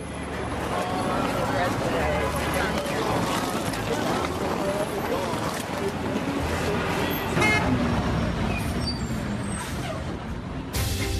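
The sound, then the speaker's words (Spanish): Busy New York City street traffic with a steady roar of engines, scattered car horns honking, and the hiss of an air brake, with faint voices of passersby mixed into the dense background. “Por lo pronto los dejo con sonidos de Nueva York.”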